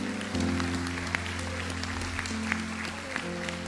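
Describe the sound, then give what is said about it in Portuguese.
Steady applause from a crowd, a dense continuous patter of clapping over a sustained low tonal drone, with a few sharper claps standing out. “Aplaude ele por oh, Glória.”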